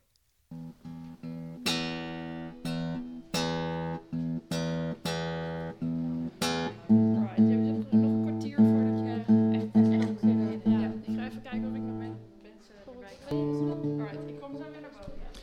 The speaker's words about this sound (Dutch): Ik heb net even meegeluisterd bij jouw soundcheck hier in eh, Q Factory.